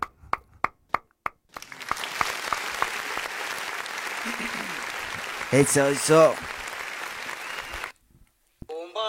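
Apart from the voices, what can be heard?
audience applause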